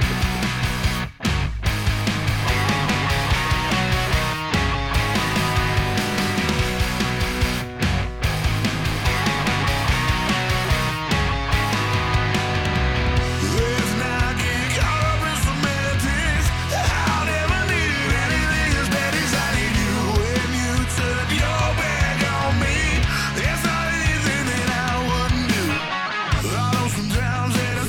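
A punk rock song plays at full volume, with dense, driving band instrumentation running steadily for the whole stretch and a couple of brief breaks in the rhythm.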